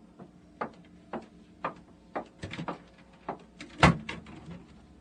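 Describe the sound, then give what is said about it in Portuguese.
A door swings shut with a solid thud near the end, after a string of evenly spaced wooden clunks and taps. “Agora saia e feche a porta, sim?”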